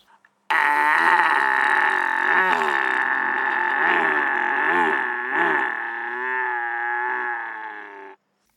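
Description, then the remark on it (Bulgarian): A man imitates a bull with a loud, sustained bellowing moo, a deep harmonic drone held for nearly eight seconds with wavering pitch, alone. “И как прави бикове.”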